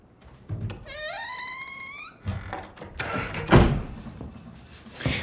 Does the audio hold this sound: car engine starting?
no